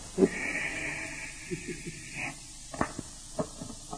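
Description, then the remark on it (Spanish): A steady, fairly loud hiss of a lit dynamite fuse on a table runs for about two seconds, then stops, leaving a few scattered knocks and clicks. “Esta es la dinamita, esta es la mesa prendemos la mecha”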